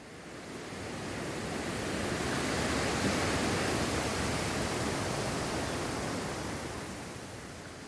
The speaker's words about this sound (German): Der große Ozean unter dessen Oberfläche so viele verschiedene Wesen zu finden sind, wo sich die schönsten Kreaturen tummeln. Das Auf und Ab des Meeres. Das Auf und Ab der Wellen.